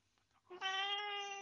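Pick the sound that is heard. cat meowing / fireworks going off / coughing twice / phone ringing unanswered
cat meowing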